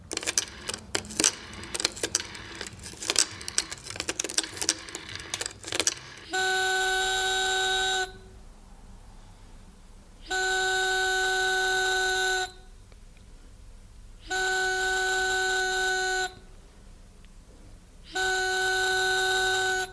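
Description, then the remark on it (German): The dial of an antiquated old telephone whirs as a number is dialed, with a few seconds of rapid, uneven clicks, then a steady electronic ringing tone sounds in four long bursts separated by pauses. “Ziemlich sauer vor sich hin murmelnd wählt die Weihnachtsfrau die Nummer des Osterhasen.”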